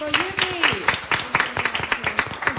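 Steady, crackling applause from a TV programme audience at the Hotel Occidental Puerto Banús welcoming back a singer, many hands clapping together for a few seconds, with a voice calling out or cheering over the clapping near the start.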